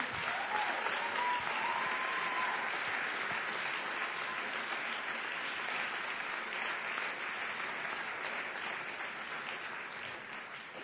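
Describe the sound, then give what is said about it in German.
Sustained applause from an audience, a dense wash of many hands clapping at a steady level for about ten seconds, easing slightly toward the end, with no one speaking over it. “Vielleicht können wir für die auch nochmal ganz herzlich applaudieren.”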